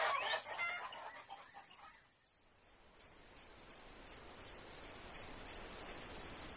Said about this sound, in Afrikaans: die hoenders kom uit. Soop, soop, loop terug man. Ek het nie tyd om by julle te vang nie. Hok toe. Nou!